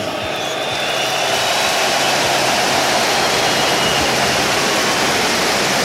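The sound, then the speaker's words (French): A stadium crowd at the Stade de France applauding all the teams of the Rugby World Cup together, a dense, loud, continuous wash of clapping and crowd roar that holds steady for the whole stretch, with no single voice standing out. “Et je vous propose d'applaudir toutes les équipes ensemble.”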